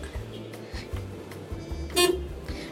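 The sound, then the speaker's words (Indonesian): A single short car horn honk, sounded from inside a car in reply to the driver's boss passing by, sounds near the end, loud, over a steady low rumble of the running vehicle. “Tadi kebetulan bos gue lewat ya gue klaksonin balik gitu.”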